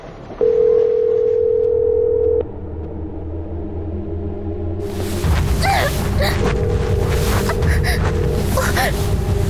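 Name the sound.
phone call ringing unanswered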